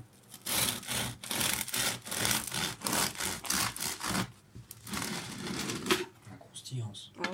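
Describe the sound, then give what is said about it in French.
A crusty loaf of population-wheat bread crackles and crunches as a knife saws through it in quick back-and-forth strokes, with a voice briefly audible near the end. “Euh, ça s'entend. Hein. La croustillance.”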